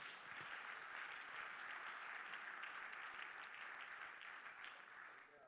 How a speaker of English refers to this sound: Would you clap your hands to the Lord tonight in the service?